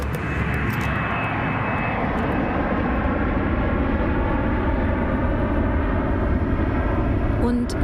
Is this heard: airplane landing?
yes